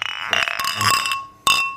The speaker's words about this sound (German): Wollen wir mal ganz kurz auf unsere Hörergemeinde, äh, auf die Stammtischgemeinde anstoßen?